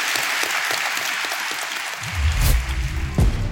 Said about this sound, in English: So can we give Nicolai a big round of applause? Thank you.